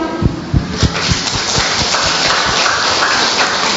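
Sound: audience clapping hands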